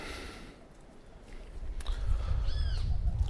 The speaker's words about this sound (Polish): Ptaszory rano zawsze strasznie hałasują. Budzą mnie. Właśnie mnie obudziły dzisiaj. No I wczoraj, i przedwczoraj.